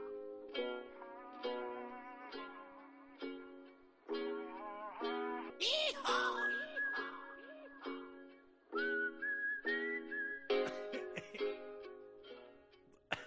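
A whistled melody of a pop song, steady and rhythmic, with clear repeated notes carried at moderate volume over about thirteen seconds, with no talking.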